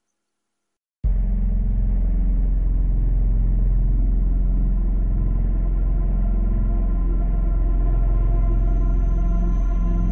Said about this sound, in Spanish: Soy Ángel Jiménez y os invito a subir a nuestro vehículo de misterio. Encendemos los motores y ponemos rumbo a lo desconocido.